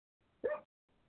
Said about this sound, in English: I'm sorry, my dog keeps barking.